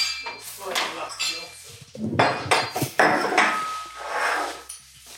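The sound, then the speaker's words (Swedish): Dishes and cutlery clink and clatter, followed by a steady rushing pour of water into a glass, with faint voices murmuring in the background. “Vill du ha vatten eller kaffe? Jag tar gärna lite vatten.”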